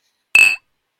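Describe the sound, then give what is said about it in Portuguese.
A single bright clink of glasses touching in a toast, fairly loud, with a brief high ringing tone that fades within a fraction of a second. No voices accompany it. “E vamos então começar com a nossa primeira rubrica, o brinde da semana.”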